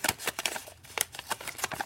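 Fairly quiet rustling and crinkling of five paper slips with words on them being drawn and unfolded, with a series of short, irregular papery bursts and no voices.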